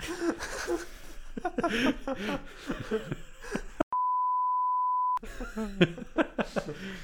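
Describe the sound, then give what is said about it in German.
A steady, high-pitched censor beep holds one flat tone for over a second, abruptly replacing the talking, which resumes right after it ends. “Darfst du einen richtig langen Beep machen?”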